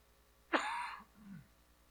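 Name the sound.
cough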